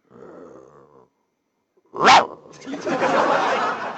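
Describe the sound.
A pet dog barking toward the outside while its owner sits down to eat: one sharp, loud bark after a short pause, followed by a rough, sustained growling noise. A lower voiced sound is heard before the bark.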